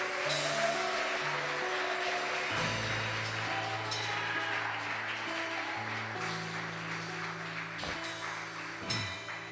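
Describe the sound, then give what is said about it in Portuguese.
Steady, dense clapping from a church audience applauding the name of Jesus carries on for the whole stretch, blended with sustained low keyboard chords underneath, holding a fairly even loudness throughout. “Você pode aplaudir bem forte o nome de Jesus.”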